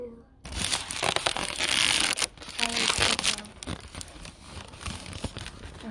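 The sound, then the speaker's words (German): A balloon is crinkled and squeezed as ASMR, a loud, continuous crackling rustle with sharp bursts of crinkles that carries on for several seconds. “Warte, ich knister mit dem Ballon als ASMR.”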